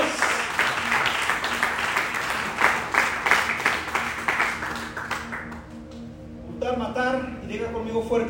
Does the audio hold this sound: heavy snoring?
no